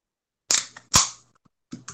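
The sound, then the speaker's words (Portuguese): A beer can snaps open: a sharp metallic click, then a louder pop with a short burst of fizzing hiss, followed by a few faint small clicks. “Acabei de abrir uma cervejinha.”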